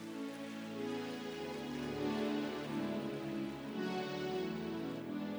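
An audience claps their hands for Jesus at the preacher's call during a sermon, in a dense, continuous wash of applause that holds steady for several seconds, with sustained musical tones underneath and no one speaking.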